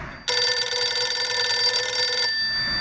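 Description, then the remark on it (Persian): A telephone rings loudly for about two seconds, one continuous bright trilling burst with no voices, then cuts off and leaves only a faint trace behind; a call to Dr. Mosaddegh at his home in the evening. “در این بین تلفنی به دکتر مصدق شد”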